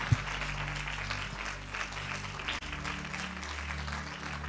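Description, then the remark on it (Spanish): Steady applause from an audience at a church service, clapping for Jesus, a dense wash of clapping over a low sustained organ-like hum, continuing for several seconds with a brief dip near the middle. “Un aplauso para Jesús.”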